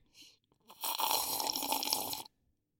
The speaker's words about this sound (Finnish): Niin saanko nyt hörppästä? Saati semmoinen soma ryystämisääni.